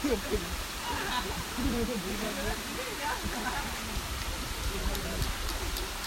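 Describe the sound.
A steady roar of rushing water from a waterfall fills the background from start to finish, with voices talking and calling out indistinctly over it.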